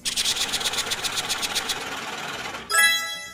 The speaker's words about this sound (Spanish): Ahora, solo para terminar, nos vamos con el bonus round. Metámosle sonido de bonus.